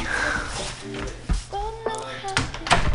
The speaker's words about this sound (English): Doors opening, closing, you're hearing all of it over the air.